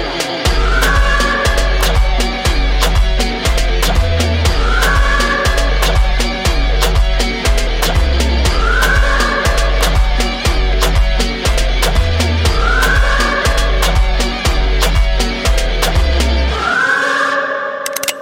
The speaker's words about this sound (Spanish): Suena la sirena.